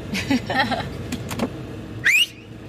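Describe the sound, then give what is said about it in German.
A mother whistles her signal call to her young son: a sharp, rising whistle rings out once near the end, a quick upward-sweeping call standing out over soft background noise and faint murmuring. “Ach, pfeifst du immer nach ihm oder was? Die einzige Mama, die pfeift, das Zeichen hört man überall raus.”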